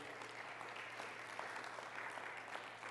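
Steady applause from an audience fills the whole stretch, a dense wash of many hands clapping at once, fairly loud and even with no voices on top.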